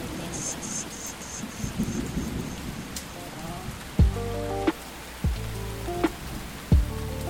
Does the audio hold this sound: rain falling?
yes